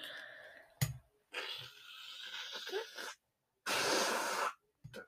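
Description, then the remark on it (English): Two long, rough nose blows by a sick person, each a harsh breathy rush of air, the second stronger and hissier, with brief clicks and snuffles around them and no talking. “That was me blowing my nose again.”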